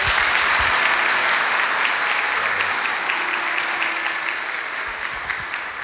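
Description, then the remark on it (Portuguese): A church audience gives sustained applause to welcome pastor Sidney Costa, a dense, steady wash of many hands clapping at once that holds loud for several seconds before easing slightly toward the end, with no voices over it. “Eu queria que você recebesse o Sidney com uma salva de palmas.”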